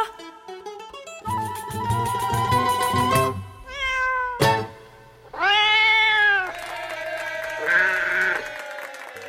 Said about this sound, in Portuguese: Mais um gato aí